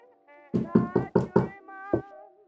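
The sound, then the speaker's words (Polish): A second round of knocking on a neighbour's door: five quick, firm knocks in a steady burst, then a pause and one more knock, all over a soft sustained musical drone with no talking. “Ja sobie czekam jeszcze chwilę i drugi raz pukam.”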